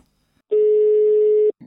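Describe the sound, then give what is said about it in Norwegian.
A single steady telephone ringback tone sounds for about one second, clear and fairly loud, then stops as a voice begins to answer at the very end. “fra podkasten Avhørt som ringer.”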